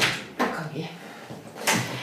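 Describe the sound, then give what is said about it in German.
A male cat pushing and scratching at a door, trying to get out, making two sharp rattling knocks about a second apart, with a muffled voice murmuring in the background. “Das ist hinter dir der Kater, der versucht aus der Tür rauszukommen.”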